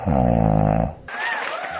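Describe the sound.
One loud, rattling snore that lasts just under a second and then cuts off. A softer, noisy stretch follows with faint voices in the background.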